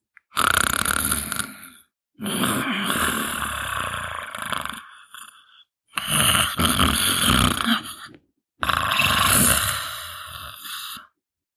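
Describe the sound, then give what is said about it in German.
Loud, rasping snoring of a wolf asleep in a bed in a grandmother's house, in four long, drawn-out breaths separated by short pauses, heavy with a rough, rumbling texture and no talking. “Wie es der Zufall so wollte, kam eine Weile später der Jäger am Haus der Großmutter vorbei und hörte ein lautes Schnarchen.”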